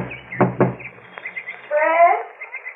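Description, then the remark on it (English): Two firm knocks land close together on a door, loud. A short, higher-pitched warbling sound follows, with quiet background noise throughout. “get the door? Will you get it yourself, baby?”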